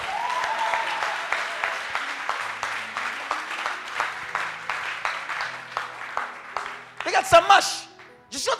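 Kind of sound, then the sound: crowd, audience cheering and applauding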